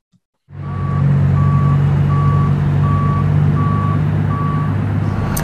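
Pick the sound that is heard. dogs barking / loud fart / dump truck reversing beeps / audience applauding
dump truck reversing beeps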